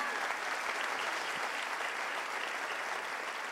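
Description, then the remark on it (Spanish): Sustained applause from a church audience for generous volunteers, a dense, steady wash of many hands clapping at an even loudness for several seconds, with no voices standing out above it. “¿Por qué no me ayuda a darle un fuerte aplauso a estos generosos voluntarios? Apláudales más fuerte en esta mañana.”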